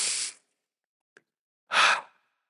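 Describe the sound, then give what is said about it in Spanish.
A deep, airy breath drawn in and then slowly released, two soft rushing bursts with a pause and a faint click between them, no talking. “Toma una respiración profunda”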